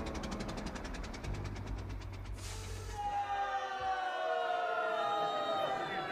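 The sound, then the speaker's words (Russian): An old car engine chugs with rapid, regular knocks, then sputters and dies out partway through as it runs out of petrol and the car stops in the middle of a street, leaving a low hum fading as murmuring voices rise afterward. “Блестящий финиш, задуманный Адамом Казимировичем, не удался из-за нехватки бензина. Машина позорно остановилась посреди улицы.”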